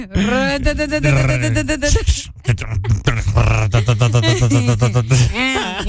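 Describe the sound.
Voices imitate a whirring electric fan with a loud, sustained low buzzing hum, rising and falling in pitch at the start and end and broken by a brief pause midway.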